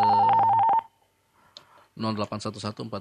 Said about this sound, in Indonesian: kami masih membuka sisi tanya jawab di konsultasi agama spesial Ramadan untuk hari ini dan saatnya sekarang kami akan mengangkat telepon yang masuk